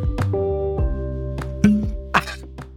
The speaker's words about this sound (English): yes, there was a very beautiful cork popping sound.